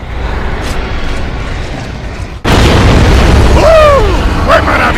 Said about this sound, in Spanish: Oye, las larvas deben tener mucha artillería aquí. Tú lo encuentras y yo hago que estalle